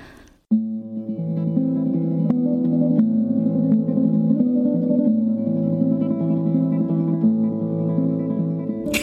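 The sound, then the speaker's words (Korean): After a song ends and a brief crackle, a recording of an old woman's son playing a piece he learned on electric guitar: sustained, effects-laden chords with a chorus-like shimmer, steady and fairly loud after a brief quiet start, with no voices over it. “노래가 끝나자 잠시 지지직거리는 소리가 나더니 기타 소리가 난다.”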